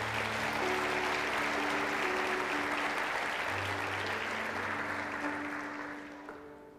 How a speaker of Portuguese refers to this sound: Dê um forte aplauso a Jesus por essa palavra.